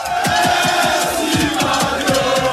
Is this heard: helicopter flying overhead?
no